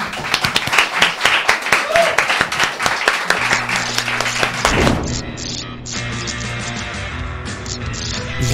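At the start of a programme, a crowd breaks into loud, dense applause for a returning presenter, with rapid overlapping claps, which after a few seconds fades under a swelling music bed and chatter.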